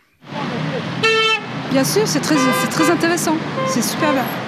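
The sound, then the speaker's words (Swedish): Car horns blare at a roadblock 35 kilometres south of Paris, France, honking in solidarity with about ten yellow-vest protesters: one long steady honk, then several shorter overlapping toots from different vehicles, with traffic rumble and voices underneath. “Bilarna tutar i solidaritet med ett tiotal gula västar”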